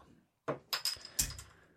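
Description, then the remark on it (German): A beer bottle is opened with a bottle opener: a few sharp metallic clicks and clinks, then the cap pops off with a brief bright ring. “Ach, Öffner ein da Öffnungsgerät hast du ja auch hingelegt.”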